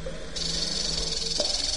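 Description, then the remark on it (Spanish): A steady, airy hiss rises and holds like snakes approaching in a video game, over a low hum and a brief tonal blip, with no talking. “vienen las serpientes.”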